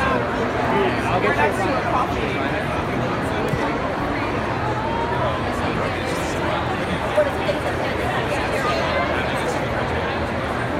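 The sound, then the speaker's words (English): Dense crowd chatter from about 100 to 200 people lined up for a cup and beer giveaway at the Expo West 2018 trade show, a steady hubbub of many overlapping voices with no single speaker standing out, continuous and fairly loud throughout. “Hundreds, well, maybe 100 or 200 people lined up to get the cup and the beer.”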